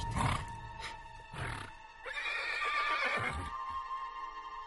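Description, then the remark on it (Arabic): A few heavy hoof thuds land, then a horse lets out a loud, long, quavering neigh that trails off; no one speaks. “أنا كنت خارج واد البي كنت ندرب في الحصان”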